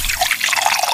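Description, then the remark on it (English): A drink is poured into a glass, a steady splashing, gurgling stream of liquid lasting about a second with no voices. “Ah, I think it's time for a nice drink though.”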